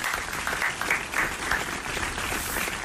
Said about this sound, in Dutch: Studio applaus.